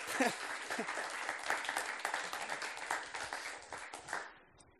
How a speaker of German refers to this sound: Geben ihr einen Applaus, sorry zusammen.